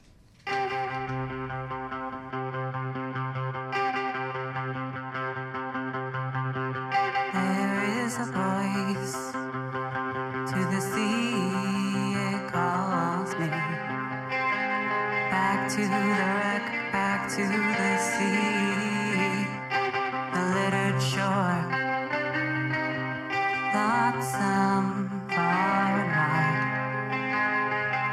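A garage rock song plays loud and steady, with distorted, effects-heavy guitars over a sustained droning bass. The full band kicks in after a few seconds and keeps driving throughout, with no voices.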